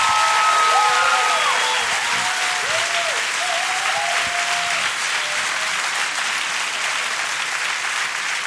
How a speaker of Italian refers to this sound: Vi prego di farci un applauso